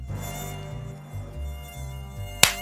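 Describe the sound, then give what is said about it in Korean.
A thin, steady mosquito whine hovers for a couple of seconds over a low hum in a home while people are sleeping, ending with a short sharp thump or slap. “아 뭐야 또 모기야?”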